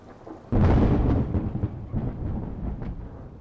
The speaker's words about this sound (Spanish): Y el retumbar del trueno, una resurrección